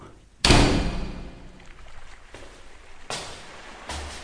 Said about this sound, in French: Oui. On monte un escalier.